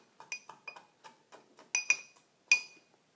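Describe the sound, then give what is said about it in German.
Limes and sugar being muddled in a glass to spread the sugar: an irregular series of taps and clinks against the glass, a few striking louder with a bright ring, with no talking. “Dann stochern wir nochmal ein bisschen auf den Limetten rum, dass sich der Zucker verteilt.”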